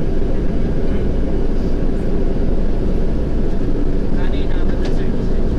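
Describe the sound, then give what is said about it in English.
Steady, loud rumble from inside a crowded moving commuter train, with muffled crowd chatter underneath and a faint metallic squeal rising briefly near the end. “I haven't had to take these non-disabled trains in a while.”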